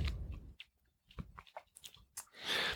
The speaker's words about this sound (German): Ich finde auch so vom Kauen das mhm. Mundgefühl mhm. sehr angenehm. Mhm. Gerade noch cremig, aber nicht klebrig und so.